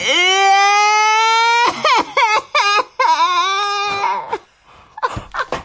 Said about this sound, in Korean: 그런데요. 할아버지는 우는 아이를 붙들고 신세 한탄을 하기 시작하셨습니다. 꼬마야, 울지 마라.